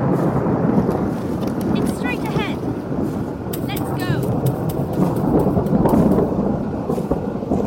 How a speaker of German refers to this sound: Oh, da gibt's Gewitter.